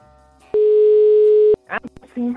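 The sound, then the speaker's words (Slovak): A single loud, steady telephone ringback tone sounds for about a second while a call is placed to a listener, followed by voices starting to talk. “Ideme jej volať.”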